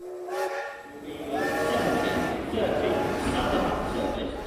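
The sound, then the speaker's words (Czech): A steam train whistle sounds in long, sustained blasts over a steady rush of hissing steam, fairly loud, with layered shifting tones and faint indistinct voices in the background. “Harry se vydává na kouzelnickou cestu aby se dostal do školy, do Bradavic, tak tam nejdřív se musí nějak dopravit, musí tam dojet. Vlakem.”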